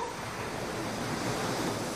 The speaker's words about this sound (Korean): 언니는 왜 맨날 자기 전에 이거 들어? 좋으니까. 그냥 파도 소리인데